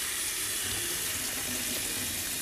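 Running tap water pours steadily over 350 grams of jarred organic chickpeas being rinsed in a sieve, a continuous splashing hiss with faint shifts as the stream hits them, no voices.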